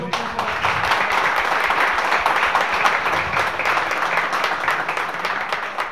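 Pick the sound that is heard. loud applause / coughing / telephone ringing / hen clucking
loud applause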